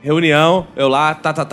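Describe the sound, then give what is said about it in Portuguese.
A man speaks briefly, then mimics keyboard typing with his voice, as if typing a report: a quick run of three short, clipped syllables tapped out in rapid rhythm, fairly loud. “Escrevendo, ei, tá digitando relatório.”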